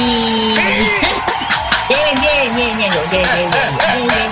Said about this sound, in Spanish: aplausos.